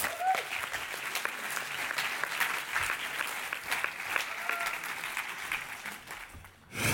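Steady audience applause at an ICF church event as a guest is invited onto the stage, a dense wash of many hands clapping at an even level for several seconds, briefly dipping near the end before picking up again.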